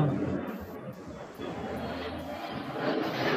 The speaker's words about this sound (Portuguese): passou um avião que vocês estão ouvindo.